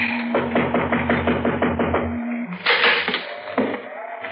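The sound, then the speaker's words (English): A quick series of sharp knocks on the door of a house with a porch, about nine in a steady rhythm, over a low steady hum, followed by a brief scuffling, rustling noise. “I guess we knock.”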